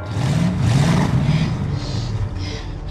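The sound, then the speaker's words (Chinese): In a film scene, a character starts a car and its engine revs loudly, its low droning pitch rising and dipping over about three seconds, with a steady rumbling roar and no voices. “小白思前想后，终于决定卖掉黑妞救下自己，然后就发动了汽车。”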